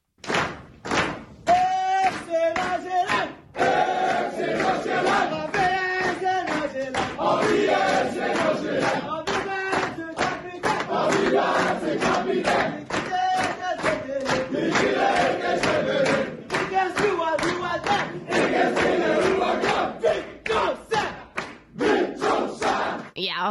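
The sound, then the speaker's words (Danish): FC Nordsjælland players chant loudly in unison after their 2-1 win over Sønderjyske, a rhythmic, shouted victory song punctuated by regular thumping claps or stomps that keep a steady beat throughout. “efter den her øh, sejrssang, så var der altså champagnebad for alle pengene.”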